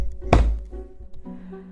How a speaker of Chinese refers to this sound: 这时，虎姑婆也撞开门了。